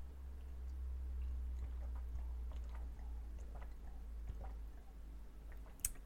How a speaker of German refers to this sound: Muss man aber auch genügend von trinken. Ja, ein Schluck.